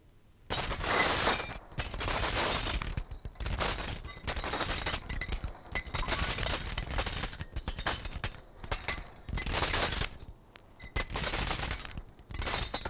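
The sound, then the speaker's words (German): A short broadcast separator sound built from repeated loud crashes of shattering glass, one burst after another with brief gaps, bright, with no voices. “Entschuldigen möchte ich mich für den ausgesprochen unpassend ausgewählten Trennungsspott, den wir jetzt hier vor dem Beitrag eben laufen hatten”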